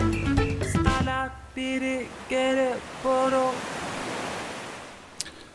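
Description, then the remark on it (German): Steady, rushing surf washes in from a small bay, while a few short, bending tonal calls ring out over the soft, continuous roar of the water. “Und ähm, ja, eine Person sitzt äh, in dieser kleinen Bucht, in der du dich jetzt befindest, am Strand”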